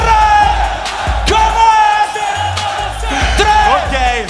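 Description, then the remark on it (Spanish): A large crowd loudly shouts a chant in unison, voices blending into a continuous roar with a few sharp bursts rising out of it, energetic. “Esta se gritó mucho.”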